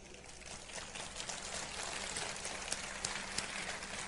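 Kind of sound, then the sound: crowd, audience applause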